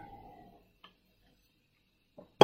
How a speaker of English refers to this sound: it's coffee with Jesus. I'm going to take a drink